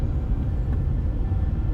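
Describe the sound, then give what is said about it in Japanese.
Steady low rumble of a car being driven on a road behind other cars, a continuous engine and road drone dominating the low end with no speech, holding an even loudness throughout. “今も車乗ってますけど”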